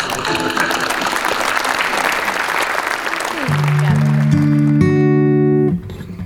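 Steady audience applause with dense crackling claps, joined partway through by a rising stack of sustained electronic tones that swell and then cut off abruptly.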